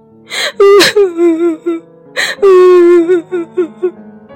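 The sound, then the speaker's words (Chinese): A voice imitates a young dinosaur crying as it runs back toward its Maiasaura mother: two loud bursts, each opening with a sharp gasping breath, then a wavering, falling wail that breaks into short, hiccuping sobs. “慈母龙妈妈听到了哭声，哦，是梁太回来了，怎么那个样子啊？”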